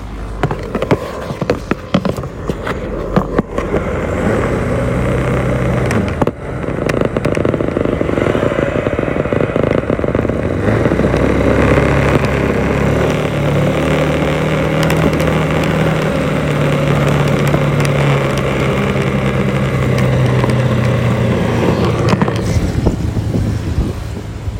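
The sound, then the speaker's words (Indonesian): A motorcycle engine rumbles steadily while riding, a loud continuous low drone with shifting pitch as the throttle changes, plus wind buffeting and occasional rattles. “ya walaupun nanti gak jelas suaranya gak apa-apa tadi kayak gelodok motor oke okay?”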